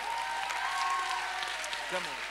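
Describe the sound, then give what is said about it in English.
Steady, dense applause from an audience, a continuous crackle of many hands clapping at once, holding at an even level for the whole stretch with faint voices mixed underneath. “Хайде хора, о, ръкопляскайте, ако вярвате в това нещо.”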